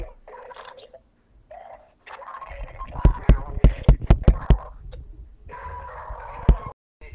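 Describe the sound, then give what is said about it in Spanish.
Interference from a bad connection: choppy, garbled voice fragments drop in and out, broken midway by a rapid run of sharp, loud digital clicks and pops. “el sonido que acaban de escuchar era porque, no sé, interferencia, algún mal conexión”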